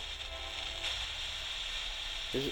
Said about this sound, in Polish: Celowo tak kręcę odbiornikiem, żeby walczyć z filtrami. Tak walczysz, że aż momentami gubisz sygnał.